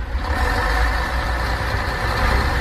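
A large bus engine idles steadily, a low continuous rumble with a constant mechanical hum and no change in level throughout, with no voices.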